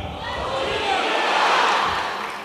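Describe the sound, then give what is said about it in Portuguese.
A large audience shouts "Bom dia" back together at the launch of Alfabetiza Juntos SP, a loud, sustained wall of many voices that swells in the middle and then fades over a couple of seconds. “E a felicidade a gente vai medir no volume do Bom Dia. Então, Bom dia!”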